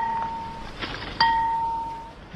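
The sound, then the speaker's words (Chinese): Radio time signal pips: a short steady beep, then after a pause a longer, slightly louder final beep at the same mid-high pitch, over a faint background hiss; the last pip marks 19:00 Shanghai time. “刚才最后一响是上海时间十九点整，延安新华广播。”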